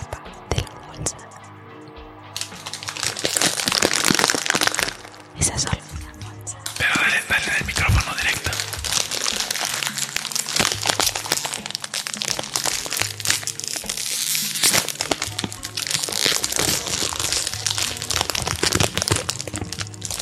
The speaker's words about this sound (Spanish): Un bolsín. Dale, Escuchen cómo el aire se escapa.